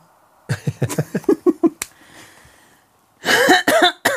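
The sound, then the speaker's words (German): A string of short, rhythmic vocal bursts, then after a brief pause a loud, rough throat clearing, harsh and gravelly, lasting under a second. “Also ich muss mich immer räuspern.”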